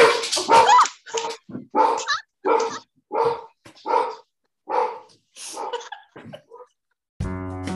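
A dog named Bill barks over and over in quick, uneven bursts, around a dozen sharp, loud barks, with a brief harmonic whine or tone at the very end.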